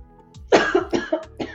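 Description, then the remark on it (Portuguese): A woman lying down coughs in a quick, harsh fit of about five loud coughs, each burst sharp and raspy, with short breaths between and no talking. “Ela deitou, botou a mão aqui e tossiu.”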